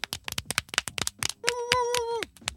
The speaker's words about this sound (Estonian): kas, plaks, kas võib äh, plaksutada ka sünnipäeva puhul või? muidugi võib. teeme ühe sooro, sooro, sooroki puhul.